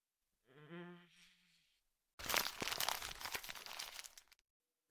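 A brief hummed vocal murmur, then about two seconds of loud paper crumpling as a letter is crumpled up to be put in a pocket, with dense, crackling crinkles that stop abruptly.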